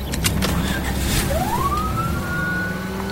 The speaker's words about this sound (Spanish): ¿Has visto a ese? Ponte el cinturón y enciende la sirena.